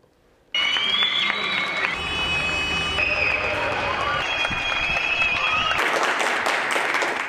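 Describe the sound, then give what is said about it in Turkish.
Sustained applause and cheering for health workers start abruptly after a brief quiet moment and keep going steadily at full strength, with high whoops and whistle-like calls rising over the dense clapping. “Bu alkışlar tüm fedakar sağlık çalışanlarına herkes evde kalmaya çaba gösterirken doktorlar, hemşireler, tüm sağlık çalışanları fedakarca hastaneye koşuyor.”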